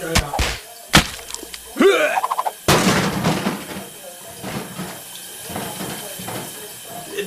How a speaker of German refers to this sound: Hörst du auf das Wasser plätschern?